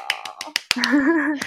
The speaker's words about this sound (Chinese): 自己帮自己拍手。